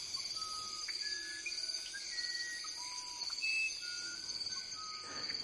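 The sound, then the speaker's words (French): Clear, pure whistled notes of a musician wren and a grey potoo's song rise and fall in scattered phrases at daybreak, accompanied by parrots, over a steady, shrill insect drone in a dense tropical forest; a recording by Bernie Krauss. “Puis, au lever du jour, le beau chant de deux oiseaux Bernie Krauss, le troglodyte ararda et l'Ibijo gris, accompagnés par des perroquets.”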